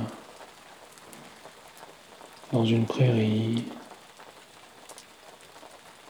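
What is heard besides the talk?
rain falling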